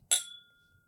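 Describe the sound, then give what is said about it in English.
A single bright clink of two glasses touching in a toast, crisp, leaving a thin ringing tone that fades out over most of a second. No voices. “Cheers.”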